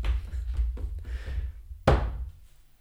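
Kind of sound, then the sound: household object, door being slammed shut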